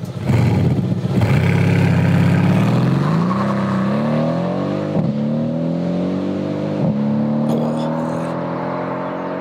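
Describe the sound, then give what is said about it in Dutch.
A powerful Mercedes-AMG car engine roars loudly and accelerates hard, its pitch climbing through several gear changes, with short sharp cracks from the exhaust at the shifts and no talking. “We, kunnen, we, gewoon een uitzending vullen met alleen maar motorgeluid.”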